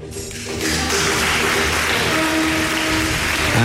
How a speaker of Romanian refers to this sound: Suntem uh, în situația în care ne aplaudăm...